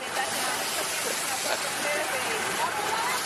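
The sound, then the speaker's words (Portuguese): A steady, unbroken rush of a stream running in summer without rain fills the whole moment, a broad hissing flow with no pauses, while faint voices murmur indistinctly in the background. “Já tinha visto um riacho correndo aqui sem estar tá chovendo?”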